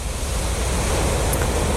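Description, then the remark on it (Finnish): Steady, full rushing of water from river rapids, a continuous loud roar with no pauses and no voices, filling the whole moment. “Ehkä se on sillä että saa jotenkin kaikki muut ajatukset pois, kun katsoo tuota veden virtaa ja ei näin tuluvaikana, vaan kesälläkin sitten.”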